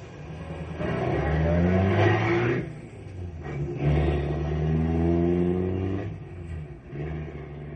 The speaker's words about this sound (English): We don't all have to go at once, and we don't have to burno. Just warm up our cars.